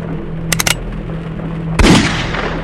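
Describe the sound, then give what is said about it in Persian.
Revolver gunshots: a rapid burst of three sharp shots cracks out, then after a short pause a louder, heavier shot booms with a lingering, rumbling tail over a low steady hum. “تیر داخل بازوی او شلیک و نصیر به ناچار وحشت زده از ماشین بیرون پرید”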